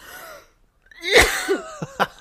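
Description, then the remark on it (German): A loud fit of choking coughs from someone choking on their own saliva: a harsh strained hack with a wheezy, gasping pull of breath, then three short sharp coughs in quick succession, with no talking. “Oh mein Gott, du an meiner eigenen Spucke fast erstickt.”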